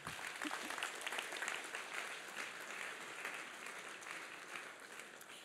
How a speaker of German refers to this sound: Das ist nochmal dein Applaus. Danke.